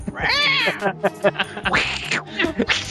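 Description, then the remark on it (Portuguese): Two drawn-out cat meows, fairly loud, the first rising and falling in pitch, the second longer and whinier, with a low murmur of background sound underneath. “Solta o bicho de quatro patas, então.”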